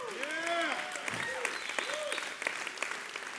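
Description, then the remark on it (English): An audience clapping in a steady, dense patter of many hands, with a few voices calling out and whooping over the applause. “Oh, you can clap louder than that.”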